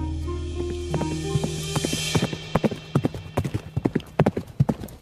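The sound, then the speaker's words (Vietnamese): Horse hooves clip-clop in a quick, uneven rhythm, growing denser and louder toward the end, over a low steady hum with no talking. “Một ngày đẹp trời, sau cả một ngày làm việc, cô bước vào chuồng ngựa và nhận thấy có gì đó sai sai với những chú ngựa xung quanh cô.”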